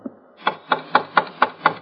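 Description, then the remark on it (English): A brass door knocker bangs against the big front door of a two-story frame building six times in a quick, steady rhythm, each hit sharp and loud, with nothing else audible. “I banged the knocker a little while, and then I tried the doorknob.”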